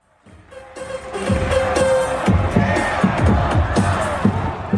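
A sold-out Korean professional baseball (KBO league) stadium crowd on Children's Day cheers and chants in unison, a steady roar with rhythmic pulses of clapping and voices that swells in quickly and stays loud throughout.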